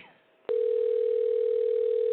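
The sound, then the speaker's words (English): A telephone ringback tone on an outgoing call that goes unanswered: after a brief quiet moment, a single steady electronic tone sounds loud through the handset and holds without a break to the end. “This one's not answering”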